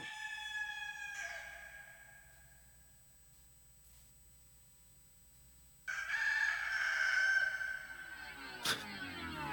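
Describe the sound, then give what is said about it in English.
A rooster crows loudly at the start of a re-recorded song, a long harmonic cock-a-doodle-doo following a quieter earlier call and a lull, then a sharp burst of noise right after. “That starts, of course, with a Doodle doo, because why not?”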